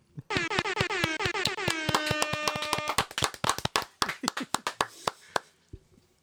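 A small group of people in the room claps for guests in quick, somewhat uneven bursts, with a loud, steady horn-like tone blaring over the first half before the applause thins out and stops.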